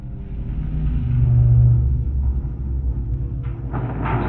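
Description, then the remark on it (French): A heavy metal door in a warehouse grinds open with a loud, deep rumble that echoes, swelling midway and ending in a harsher metallic clatter. No voices. “Dans l'entrepôt, à ce moment-là, il y a un fort bruit métallique d'ouverture de porte qui résonne.”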